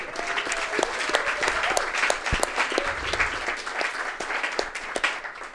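An audience applauds the bar staff steadily, a dense patter of many hands clapping at even loudness for several seconds with scattered sharper claps standing out.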